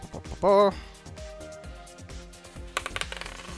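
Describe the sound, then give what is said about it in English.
Dice clatter briefly across a hard surface near the end, a quick burst of small rattling clicks, following a short tonal sound and some quiet background voice. “Let's roll some dice.”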